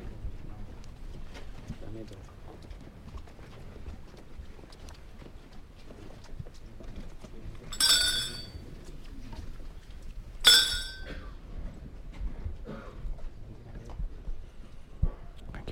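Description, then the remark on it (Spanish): Many footsteps shuffle and tap steadily over a cobblestone street as a funeral procession passes at night toward a convent, the street dark with public lighting switched off, with faint murmuring and two sharp metallic clinks ringing out briefly partway through. “prácticamente únicamente suenan los los pasos.”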